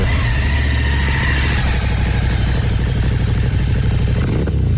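A flat track racing motorcycle engine roars steadily through its original exhaust, a loud, continuous rumbling drone with rapid firing pulses and no voices over it.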